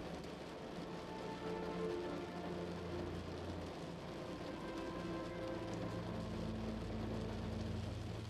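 Steady rain patters against a window in a dense, even crackle of countless small drops, with a faint low hum running underneath and no voices.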